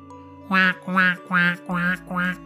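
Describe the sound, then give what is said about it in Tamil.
A golden-egg-laying duck being carried off quacks loudly five times in a steady, evenly spaced series. The harsh, nasal calls are prominent, with no talking over them. “அப்படின்னு இந்த வாத்து பயங்கரமா கத்த ஆரம்பிச்சிடுச்சு வாத்தோட இந்த சத்தம் கேட்டதும் தூங்கிக்கிட்டு இருந்த அரக்கன் திடீர்னு எழுந்திருச்சான்”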